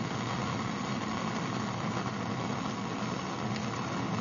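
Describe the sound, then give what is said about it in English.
Water boils at about 102 degrees in an ordinary ceramic mug, bubbles rising from only one place and growing huge by the time they reach the surface, with a steady, loud rumbling hiss of bubbles, continuous, with no voices over it. “As they come up, they're very noisy, and they get huge by the time they reach the surface.”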